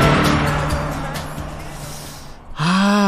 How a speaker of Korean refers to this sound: 자, 옆에 차가 지나갑니다. 차 소리와 함께 음악 소리가 들려요. 옆차에서 어떤 노래를 듣고 있을까요? 들어보시죠. 차가 옵니다. 차가 옵니다.